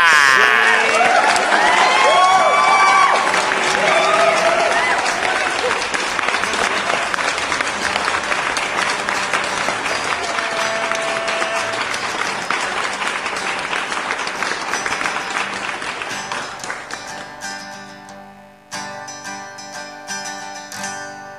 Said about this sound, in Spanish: ¡Aplausos, maldita sea!